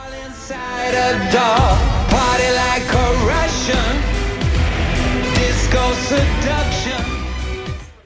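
The Riga Technical University men's choir Gaudeamus sings a loud, full-bodied song over steady, heavy backing, with rhythmic shouted "hey" calls punctuating the music throughout.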